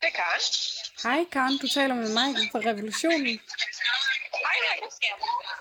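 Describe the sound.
Two voices speak over a telephone line, the sound thin and band-limited with a slightly crackly, compressed quality throughout the conversation.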